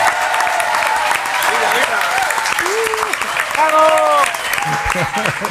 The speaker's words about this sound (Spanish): venga, el aplauso vamos a dárselo a nosotros. Venga.